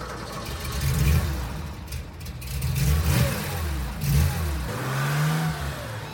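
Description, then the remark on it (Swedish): A two-litre twin-carburettor car engine rumbles to life with a low, uneven idle, then revs up and down in several rising and falling surges, loud and steady with no talking. “Ja, eh, och rosslar igång den här eh, dubbelförgasarmotorn då på två liter.”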